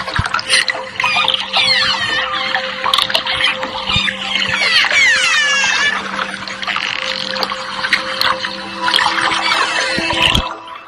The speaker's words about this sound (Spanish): sonidos de los delfines y los usan como delfinoterapia, le llaman, ¿no?